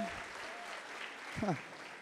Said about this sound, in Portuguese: Aplauda o Senhor, celebra Ele porque é assim que tem que ser.